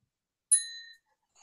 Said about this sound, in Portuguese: A campainha. As campainhas que eu comprei para minha mãe há uns 30 anos atrás. Tá, é, tá até hoje funcionando essa merda aqui, que é incrível, cara. Essa, toda vez que você toca essa campainha,